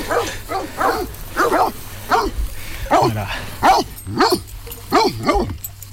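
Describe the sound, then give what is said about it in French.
A large Pyrenean mountain dog (patou) barks repeatedly and steadily, about ten deep, resonant barks in quick succession, loud, with a low constant hum underneath. “Donc c'est un patou.”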